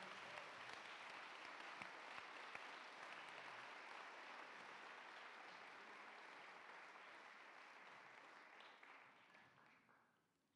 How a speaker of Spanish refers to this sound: Vamos a darles un aplauso a los que están conectados el día de hoy.